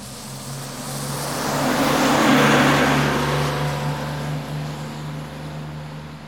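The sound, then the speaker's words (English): A heavy bus engine rumbles steadily with a low drone, the whoosh of its motion swelling and then easing off as it pulls away. No one speaks. “You're getting good with those sound effects.”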